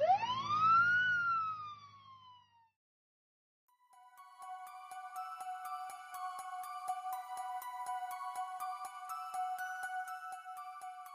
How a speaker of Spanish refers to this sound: Al escuchar el ruido de las sirenas de policía, ella, junto a sus voces, decidieron salir por la puerta trasera de la casa.